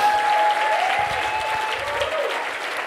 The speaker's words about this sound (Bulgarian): Ръкопляска, ако го вярваш.